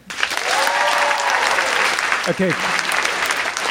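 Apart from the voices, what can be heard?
audience clapping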